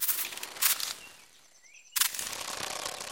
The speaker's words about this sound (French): Ce que j'entends là est, je crois, le bruissement d'une toute petite bestiole, discrète, active, infiniment légère.